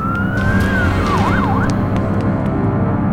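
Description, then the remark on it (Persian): A police siren from police cars stopped in front of a house late at night wails over heavy traffic rumble, holding a steady tone before breaking into a few quick warbling yelps, then fading away as the low engine noise continues. “وقتی پیتر برگشت خونه ماشینای پلیس رو دید که جلوی در خونهشون ایستادن”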